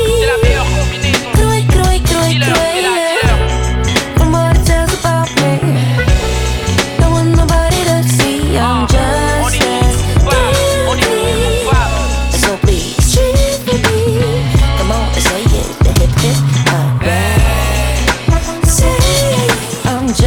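A rap track remix plays loudly and continuously, with a dense, punchy beat, deep bass and layered melodic parts filling the whole stretch, no one talking over it.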